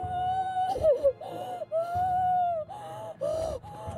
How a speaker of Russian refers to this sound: Папа решил вернуться домой, и как только он ушел, раздался крик.